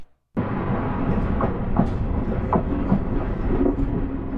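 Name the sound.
train clattering along rails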